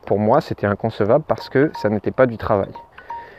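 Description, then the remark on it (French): A man speaks steadily, and near the end his mobile phone's electronic ringtone comes in: a few short, clean beeping tones, fairly soft, continuing briefly after the talking stops. “Peut-être tu entends des sonneries intempestives, c'est mon téléphone, c'est normal.”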